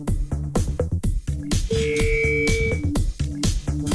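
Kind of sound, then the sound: signal or alarm, telephone ringing tone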